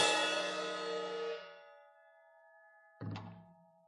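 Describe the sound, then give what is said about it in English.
A metallic clang rings out and shimmers away over about a second, then a second sharp, loud strike lands near the end, with no voices. “I have become what? A sounding brass or clanging cymbals.”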